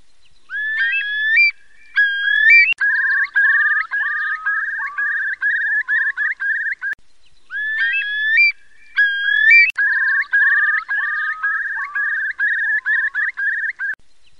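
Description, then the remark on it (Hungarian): Eurasian curlew (Numenius arquata) calls: rising, fluting whistles that break into a long bubbling trill, heard twice in clear succession, loud and carrying, with no voices. “Nagy póling (Numenius arquata)”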